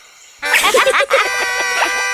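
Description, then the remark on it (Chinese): A rooster crows once after a brief silence, a sound played from a book about animals that makes animal sounds: a loud, bright, buzzy call rich in harmonics, with a few sharp inflections at the start before it holds steady for nearly two seconds. “公鸡，right，公鸡的叫声是哦哦哦，哦哦哦。”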